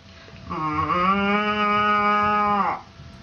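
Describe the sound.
A woman imitates a cow with one long, low, steady moo lasting about two seconds, rising slightly at the start and ending abruptly, against a quiet background.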